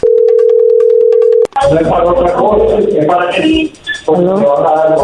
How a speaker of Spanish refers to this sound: No haga ruido, ahí se está marcando.